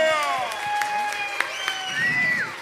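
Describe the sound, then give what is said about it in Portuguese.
An audience applauds a bassist, scattered claps popping over sustained, gliding high-pitched tones like whistles or whoops, holding steady in loudness for a few seconds. “Uma salva de palmas, esse baixista fera.”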